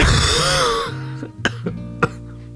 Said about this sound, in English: you know what? I think that cough is actually better than what I was about to say, I'm going to leave it right there